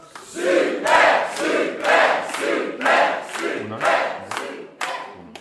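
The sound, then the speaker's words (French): A studio audience of a France Inter quiz claps and cheers for contestants stopping at the banco, in a steady rhythmic pulse, loud, with massed voices rising on each beat for several seconds. “on vous applaudit, vous vous arrêtez au banco, c'est votre droit le plus strict.”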